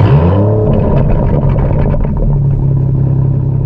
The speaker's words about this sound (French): Tu sais, quand tu vas sur le site Internet, tu peux peser, je sais pas si ça existe encore, mais tu peux peser puis entends le bruit du moteur.